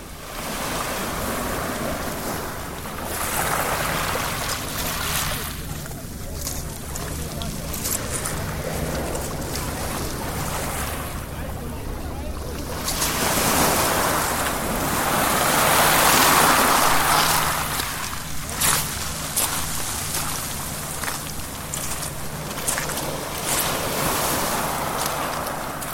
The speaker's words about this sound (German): hier zum Ausklang noch ein wenig britisches Meeresrauschen, aufgezeichnet in Brighton im September 2023.